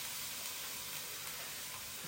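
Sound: vegetables sizzling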